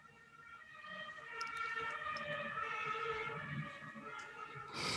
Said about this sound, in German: Das ist The Real Podcast Live und da fährt auch mal die Feuerwehr vorbei.